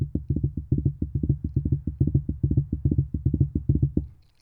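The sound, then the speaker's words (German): A drum beat pattern meant for a double bass drum, tapped out on a microphone in four-four time: rapid, dull, low thumps in a steady rhythmic groove, some in quick clusters, running for about four seconds with no talking. “Und er geht circa so, ich weiß nicht, ich versuche den mal auf dem Mikrofon zu klopfen.”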